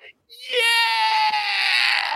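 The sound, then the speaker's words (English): A man lets out a single loud, sustained excited yell lasting about two seconds, strained, rising sharply after a brief pause and holding steady at full volume. “Now, you have found a very specific bet that if this thing hits, I can tell you exactly the time that I'm going to be yelling,”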